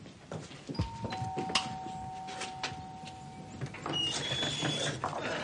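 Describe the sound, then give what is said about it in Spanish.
A man rings the doorbell at the front door of a house: two overlapping sustained chime tones held for a few seconds, over a busy background of soft clatter and rustling, followed by brief higher-pitched electronic tones. “el hombre moreno llama al timbre.”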